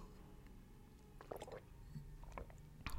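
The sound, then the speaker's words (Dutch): Someone takes a sip of water, with a few soft wet slurps and a gulp, then a faint clack at the end; no one speaks. “Oh ja, even een slokje water.”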